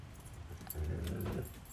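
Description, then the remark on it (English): A dog barks in a short, fairly faint burst, with no one talking. “after some time, like right now, I'm shutting down because of the dog barking.”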